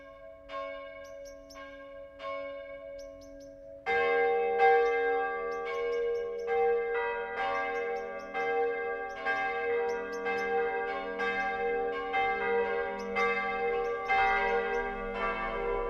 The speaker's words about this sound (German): Es ist 12 Uhr. Das Mittagsläuten kommt heute von der evangelisch-lutherischen Jakobskirche im mittelfränkischen Rothenburg ob der Tauber.